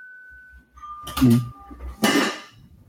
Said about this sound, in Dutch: Wat is dat? Ding dong, ja, de bel gaat hier, dames en heren.